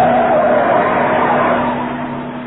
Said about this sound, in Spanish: El gigante japonés conducía el auto.